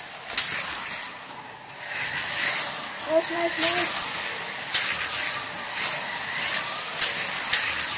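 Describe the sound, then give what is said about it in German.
A continuous high, whirring buzz of small electric Carrera Go slot cars racing around a plastic track in a 50-lap race, with sharp clicks and ticks as they pass, while children call out excitedly over it. “Carera go rennen”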